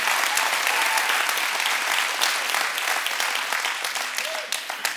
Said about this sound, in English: And I want you to give your leaders a great round of applause.